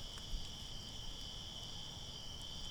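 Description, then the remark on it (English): Crickets chirp in the evening in a steady, unbroken high trill that holds throughout, fairly soft and spread out as if from surrounding grass, with a low rumble of outdoor background beneath and no voices. “I bet you the crickets saw it.”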